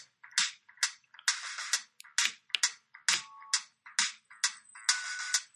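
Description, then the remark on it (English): A drum beat from a music app: about a dozen sharp, bright snare- or clap-like hits in a steady, bouncy rhythm, played alone with no talking. “So here they have like they give you a beat, and then you just like tap these little tiles.”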